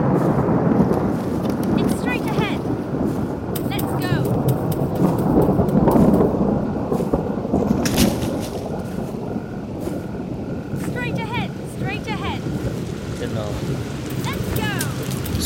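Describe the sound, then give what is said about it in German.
A thunderstorm: heavy rain pours steadily throughout while deep thunder rumbles and rolls underneath, loud and close, with a few faint high chirps over the downpour. “Oh, da gibt's Gewitter.”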